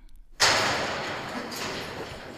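A heavy metal prison door at the Siegburg prison slams shut with one loud, sudden clang, its harsh ring lingering and slowly fading.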